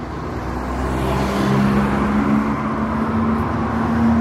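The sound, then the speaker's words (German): Steady roar of road traffic on the four-lane Fügerstraße in Heilbronn, with vehicles rushing past continuously and a low engine hum running throughout; no one speaks. “Die Stadt versucht, diese weitgehend zu ersetzen, wie hier an der vierspurigen Fügerstraße”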